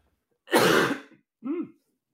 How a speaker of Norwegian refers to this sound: Vent litt, jeg må hoste.